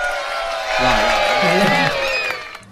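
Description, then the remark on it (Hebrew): An audience at the Science Museum cheers and shouts together when asked to make noise for a radio broadcast, a loud, dense wash of many overlapping high voices that swells for about two seconds before fading out. “ונכון, נגיד למי שעכשיו פתח את הרדיו, יש איתנו כן. קהל במוזיאון המדע? תעשו רעש, כן. ישמעו אתכם ברדיו.”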